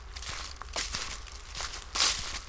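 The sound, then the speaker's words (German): Footsteps walking through a forest between Lauterbach and Schlitz in the Vogelsberg, Hesse, Germany, on a pleasant day, each step a soft crunch of leaves and twigs at an unhurried, steady pace, with a faint rustle and low rumble between steps and no voices. “An so einem angenehmen Tag wie heute in den Wald gehen zu können, wie ich gerade, zwischen Lauterbach und Schlitz im Vogelsberg, das ist natürlich bei dem Wetter eine tolle Sache.”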